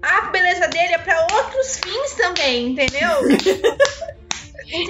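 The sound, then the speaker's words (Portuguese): Several sharp, dry slaps of a woman striking one hand against the other, scattered irregularly, cutting through steady conversational speech and a brief laugh. “Ela tá pegando uma mão, batendo na outra, fazendo esse barulho assim, ó.”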